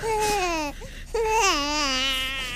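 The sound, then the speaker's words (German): A newborn baby, shortly after birth, cries loudly at night in two long, wavering wails separated by a brief catch of breath, with no talking over it. “Das ist kurz nach der Geburt und spielt nachts und die beiden sind wach, weil das Kind, kind schreit.”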